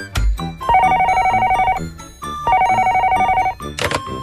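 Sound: telephone ringing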